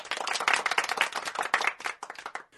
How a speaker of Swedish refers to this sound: En stor applåd till alla som varit en del av den här produktionen.